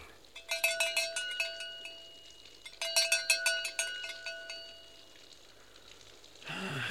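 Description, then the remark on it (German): A doorbell rings twice: two loud bursts of rapid, rattling metallic ringing at a bright, steady pitch, each lasting about a second and a half, separated by a short pause. “Bitte zweimal klingeln.”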